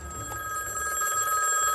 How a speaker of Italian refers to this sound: Proprio in quel momento, non molto lontano da quella prigione, un telefono squilla nella notte.